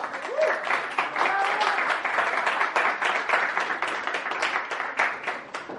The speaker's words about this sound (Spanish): Hoy voy a compartir junto con mi esposa, a la cual les pido que le regalen un fuerte aplauso.